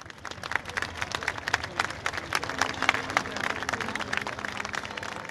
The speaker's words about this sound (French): chaque soir mm. à 20 on applaudissait toutes ces personnes, celles que l'on appelait en première ligne sur nos balcons, dans nos jardins, avec ce petit côté émouvant à chaque fois.